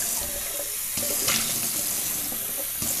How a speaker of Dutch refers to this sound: Ik ga mijn waterfles vullen.